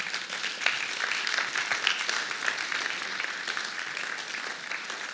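An audience applauds steadily for about five seconds, a dense wash of many hands clapping at an even, moderate level with no voices on top.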